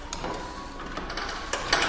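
Heavy metal doors slide open with a steady mechanical rumble and grinding scrape, punctuated by a few sharp metallic clanks toward the end. No voices.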